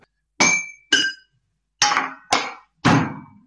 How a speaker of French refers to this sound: vous allez taper sur votre plan de travail de cuisine, sur votre évier, sur des casseroles, pour obtenir des sons percussifs.